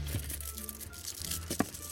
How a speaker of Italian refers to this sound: Mm, mi sento come il bimbo della fabbrica di cioccolato che scarta per cercare il biglietto d'oro.